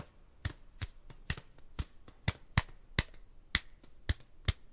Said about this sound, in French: il a commencé à se tapoter le haut de la tête